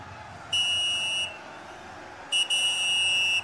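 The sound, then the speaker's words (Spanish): Two shrill, steady referee's whistle blasts: a short one, then a longer one that stutters briefly at the start, standing out over a low background rumble with no talking. “Silbatazo, señoras y señores, esto no huele, no huele, este.”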